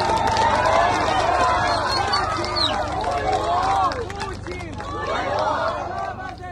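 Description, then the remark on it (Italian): A large crowd celebrates in the main square of Kherson, Ukraine, seat of the regional government, on the fourth day of celebrations: dense, overlapping voices shouting and calling out in a lively din that stays loud throughout, easing slightly midway before swelling again. “In questa piazza principale, che è anche la sede del governo regionale dell'Oblast di Kherson, continuano, come sentite, i festeggiamenti che vanno avanti appunto da quattro giorni.”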